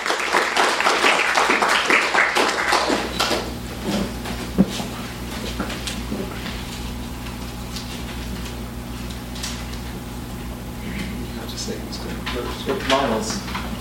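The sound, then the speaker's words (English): An audience bursts into dense, loud applause for the event's contributors for a few seconds, then it thins out into scattered claps and taps over a steady low hum. “So please give a round of applause for all of our, our wonderful contributors and sit back and enjoy.”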